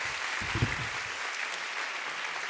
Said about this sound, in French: On a travaillé, on peut applaudir le meuble à question Bravo les gars.